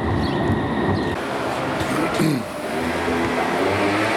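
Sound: tram passing by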